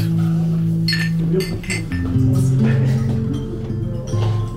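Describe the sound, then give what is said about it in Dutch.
Wine glasses clink together several times in a toast, bright ringing taps overlapping irregularly, with a low hum of voices murmuring underneath throughout. “Dus op jullie aller gezondheid.”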